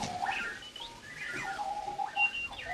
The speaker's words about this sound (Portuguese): O relógio, que dá pelo nome de Clocky, à hora marcada não só começa a tocar, e, e agora peço que baixes a, a, a música para, para, nós ouvirmos o, o, o relógio em funcionamento.